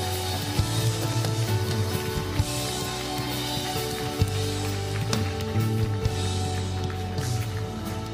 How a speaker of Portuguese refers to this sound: Será que podemos dar uma grande salva de palmas? Como uma verdadeira multidão de testemunhas. Vá lá, vá lá.